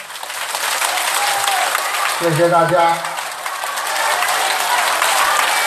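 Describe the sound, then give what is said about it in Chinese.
Sustained, dense applause from a large audience at the close of Lu Junhong's World Buddhist Friends Meeting fills the whole clip at a steady loud level, with a man's voice briefly speaking over the clapping partway through. “让我们以最热烈的掌声。”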